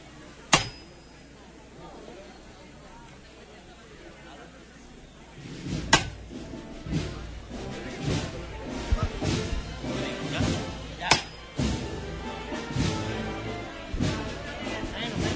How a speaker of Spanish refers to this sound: Ahí está el golpe de martillo de Fernando Melgar.